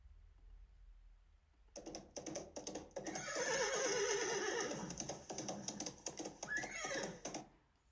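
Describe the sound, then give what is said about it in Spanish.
A horse neighs loudly, a long shaky whinny that rises and trembles before trailing off, with faint clicking or hoof-like taps underneath. “Muy, muy bien, un caballo.”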